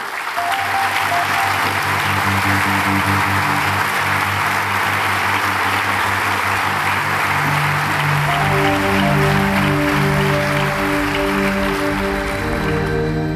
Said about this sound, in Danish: Og husk nu klapsavlen i det næste kapitel, jeg går ind i.